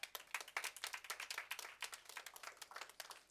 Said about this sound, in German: Danke für diesen aufregenden Applaus. Der war sicherlich nicht ganz cool, aber er grenzt an cool.